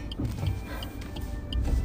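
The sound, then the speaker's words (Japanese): Low, steady rumble of a car moving in heavily congested traffic, engine and road noise filling the background, with a few faint ticking clicks and no voices. “ああなんだこの車の混み具合待ってくれよもうめちゃくちゃだもう助けてくれよああもうめちゃくちゃ後ろも待ってるし”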